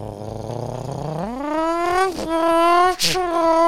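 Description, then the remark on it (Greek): A man's voice imitates a revving V6 engine, a low buzzing drone that climbs steeply in pitch and holds a strained, harmonic whine, with a brief break before continuing, loud. “Και ακού, το βέξι έτσι, ρε.”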